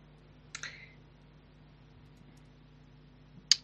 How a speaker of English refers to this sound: Hold on, I'm just typing uh, this live typing, folks.